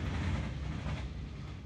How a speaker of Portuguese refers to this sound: Uh, olha, comboio, olá.